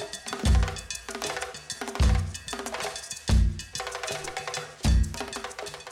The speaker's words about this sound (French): On entend se rapprocher les bruits des djembés, sabar et autres percussions du groupe désormais mythique en Argentine